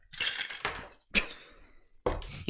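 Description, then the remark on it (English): Ice cubes being shaken down in a glass rattle and clink against it in three sharp bursts, each a bright jangling clatter that rings out briefly before the next shake, fairly loud with no talking. “Trying to shake the ice down, and I shook it right out of the top of the glass.”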